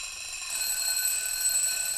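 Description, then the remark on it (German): An alarm clock rings with a continuous high metallic jangle, growing louder after a brief start and holding steady and bright throughout, with no voices. “Und Geräusche werden wach ein Wecker.”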